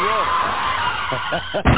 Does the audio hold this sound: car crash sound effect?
yes